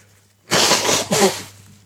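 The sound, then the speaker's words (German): Someone blows their nose in two loud, breathy bursts: a long rushing blast, then a shorter honk. A faint, steady low hum runs underneath. “Red mal weiter, ich muss mal eben meine ähm, Nase putzen.”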